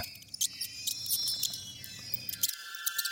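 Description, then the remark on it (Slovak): An eerie, dense chorus of high-pitched squeaking, like hundreds of small mice, chittering in rapid overlapping bursts in a dormitory room over a low murmur that drops away near the end. No one speaks. “Má pocit, ako by jej v izbe pišťali stovky malých myší.”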